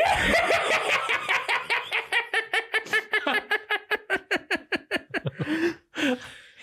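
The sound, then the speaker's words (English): A man's voice imitates a maniacal horror-villain's laugh: a rapid, accelerating run of sharp, staccato cackles rising in pitch, loud, ending with a couple of breathy, drawn-out gasps. “I've always been able to do a fucking good Chucky laugh”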